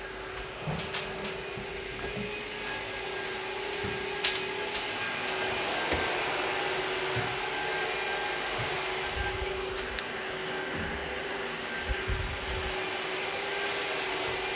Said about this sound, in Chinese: 哎呀妈，这吹头发吹的，哎呦我天哪，跟抽油烟机似的，这咋还越吹越明显了呢？哎呦我天哪，这声是不是太大了呀？同学们，你们帮老师听听。